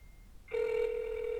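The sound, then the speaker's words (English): A phone line ringing through: after a brief quiet moment, a steady, buzzy electronic ringback tone starts abruptly and holds at an even, fairly loud level, with no one talking. “I'm calling them live on the pod.”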